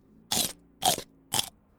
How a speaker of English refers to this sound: What you hear is my teeth crushing the tortellini, and this is called crunching.